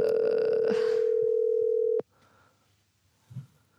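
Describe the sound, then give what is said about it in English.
A loud, steady telephone dial tone of an outgoing call hums for about two seconds, then cuts off abruptly with a click, leaving faint background noise and a brief soft rustle. “And finally, when my anxiety reaches an absolute fever pitch, uh...”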